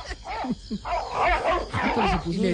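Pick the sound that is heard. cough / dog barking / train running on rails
dog barking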